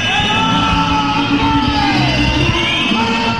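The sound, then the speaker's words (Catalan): At the end of a Nàstic football match at the new stadium, the crowd whistles loudly and continuously, many shrill overlapping whistles over a low roar of voices and shouting, holding steady for the whole few seconds. “S'ha acabat el partit, xiulada al nou estadi.”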